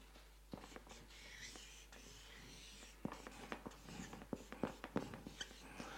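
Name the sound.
pen writing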